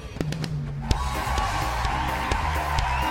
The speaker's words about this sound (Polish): Po chwili reflektory błysnęły ponownie. Tłum zaczął dopingować, bić brawa.